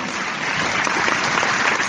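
A crowd applauds steadily, a dense, even patter of many hands clapping at once that holds at a fairly loud level throughout without fading.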